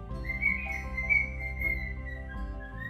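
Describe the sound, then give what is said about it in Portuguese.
A bird sings a steady, high warbling whistle that carries on for several seconds, clear, over a low background hum with no one talking. “Olha o pássaro.”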